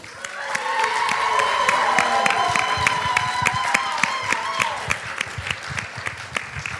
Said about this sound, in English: I thought I got a standing ovation